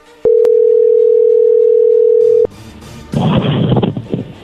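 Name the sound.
telephone ringing tone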